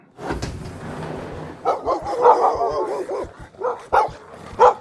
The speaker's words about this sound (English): The explosion of sound almost sent Mateo leaping through the glass of the door in front of him. But it was just Mick and Chevy springing up under the table, barking, knocking chairs over in their haste to retreat further from the open door.